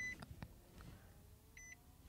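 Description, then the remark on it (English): A car dashboard chimes with short electronic beeps, one at the start and a pair of quick beeps near the end, quiet against a low rumbling interior background with a few soft knocks. “You hear everything beeping”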